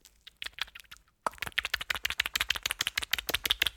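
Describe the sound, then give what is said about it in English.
Quick wet slaps and dabs like a cartoon paintbrush smacking paint onto a canvas on an easel, sparse at first, then a fast, steady flurry of sharp strokes. “And this is where it gets weird because it's like him with this a, is an where easel and a, a paintbrush and he's like slapping stuff on and it just it just sounds like this.”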